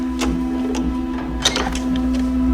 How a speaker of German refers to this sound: Tim konnte hören, wie Nausch die Tür von außen verriegelte.